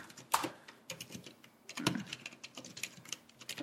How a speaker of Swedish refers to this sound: Det där är ju läskigt ju. han skriver lite fel också.